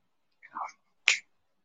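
A single crisp, fairly loud finger snap comes right after a brief murmured vocal sound, then quiet.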